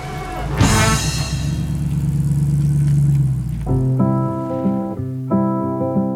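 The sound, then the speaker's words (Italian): A car engine bursts to life and runs with a steady, rising drone for a few seconds, loud, as two travellers set off by car toward the Dolomites, before giving way to sustained musical tones. “L'entusiasmo di quell'uomo misterioso conquista i due viaggiatori che salgono in auto con un misto di timore ed eccitazione.”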